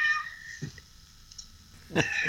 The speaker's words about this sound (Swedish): Ja, du, kattskrället. Ja, katten ska gå ut. Ja, ja, det är bra. Kom nu. Ska du gå ut? Katten och hustrun har företräde.